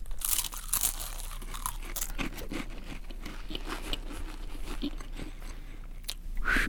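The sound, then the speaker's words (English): Dry crunching of a saltine cracker being bitten and chewed, a steady run of crisp crackles with brief pauses and no voices. “Okay, eat the saltine.”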